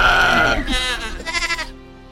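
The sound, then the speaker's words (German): A goat bleats in a drawn-out, quavering cry that wobbles through a couple of pulses, moderately loud, then fades to quiet. No one speaks. “Aus dem Hintergrund hört man eine äh, Ziege, die garantiert nicht Zieglinde ist.”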